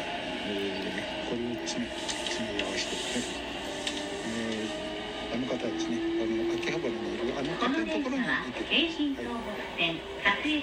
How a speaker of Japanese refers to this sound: というわけで電車の中の、えー、ちょっと音ですね交換音をお聞きください交換音じゃないや電車の中の音を聞いてくださいはい